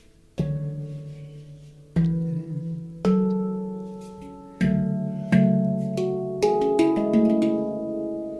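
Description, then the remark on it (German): A sequence of three chords strummed on a stringed instrument, each one ringing out with a sharp attack before the next, played clear with no voices. “Den Song habe ich, die, diese, diese drei Akkorde habe ich die letzten Tage viel gespielt.”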